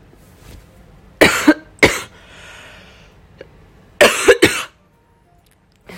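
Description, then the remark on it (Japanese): A loud burst of coughing: two sharp coughs, a short pause, then a quick cluster of three more harsh coughs, with no talking in between. “すいません咳咳が出ました健康に過ごしていきたいとか言いながら初っ端で咳をするっていうなんかはいすいませんでした”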